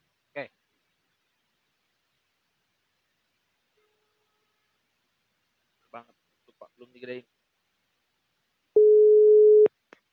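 A phone's ringback tone sounds once near the end, a loud steady electronic beep lasting about a second, preceded by a few soft scattered clicks and taps in otherwise quiet surroundings.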